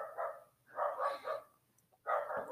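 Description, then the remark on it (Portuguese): A dog barks in the background in short bursts, a pair of quick barks followed by a pause and another bark, with a faint low hum underneath. “Cachorro latindo aqui no fundo.”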